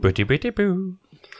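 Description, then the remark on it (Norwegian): A single voice sings a short, bouncy jingle with nonsense syllables: a few quick pitched notes, then one held tone that fades, like someone imitating a video game start tune. “det er lyden av startspillet.”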